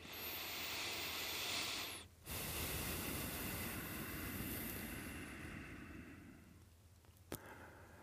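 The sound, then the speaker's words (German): A deep breath taken as a breathing exercise: a breathy inhale of about two seconds, a brief pause, then a long, slow exhale that gradually fades. No one speaks. “Okay, bevor wir anfangen, nehmen wir uns einen Moment Zeit, schnaufen mal tief ein und aus.”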